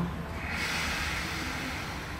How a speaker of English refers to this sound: And then again, inhale, like you're breathing, just the tummy, just the tummy, not the chest.